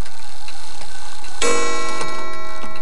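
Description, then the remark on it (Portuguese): A clock showing 10 o'clock at night ticks steadily and quietly, then a bright, sustained metallic ring joins partway through and hangs over the continuing ticks. No one speaks. “O relógio mostra que são 10 horas da noite.”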